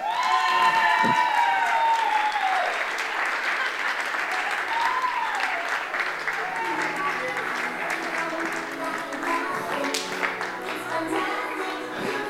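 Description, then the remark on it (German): Sustained applause from a crowd at the ICF Celebration welcoming Barbie and Ken, with scattered cheers and whoops, a dense steady wash of clapping lasting the whole stretch, with some high excited shouts and voices mixed in. “Und äh, von daher äh, lade ich dich ein, dich mit einem großen Applaus, äh, auf einen großen Applaus bereit zu machen.”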